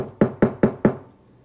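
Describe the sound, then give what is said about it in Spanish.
Four firm, evenly spaced knocks on an apartment door by the rent collector, in a quick, steady rhythm, each with a hollow wooden thud, then a brief fading ring and quiet. No one speaks. “Que te toquen”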